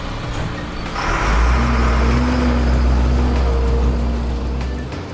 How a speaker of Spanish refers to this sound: Hoy nos montamos en el camión de la basura para mostrarte qué hacen tus residuos cuando dejas de preocuparte por ellos.